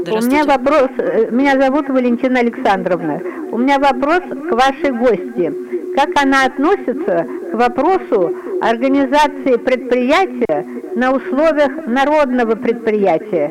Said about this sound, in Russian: И, кстати, отойдите, народное... пожалуйста, от радиоприемника. А вас очень плохо слышно. Фонит.